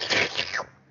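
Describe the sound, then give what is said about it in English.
A short, breathy whooshing noise made by a voice, imitating Darth Nihilus draining the Force from Kanan Jarrus with a sucking sound that sweeps downward and fades out in under a second, fairly loud. “that's the sound of the force being sucked out of him”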